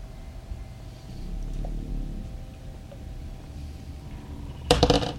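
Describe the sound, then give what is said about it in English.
A quiet hum, then near the end a brief, bright clatter of dice rolled for a tabletop game check tumbling across a hard tabletop, a quick burst of rattling clicks that stops abruptly; the roll comes up 17. “Oops, wrong dice. 17.”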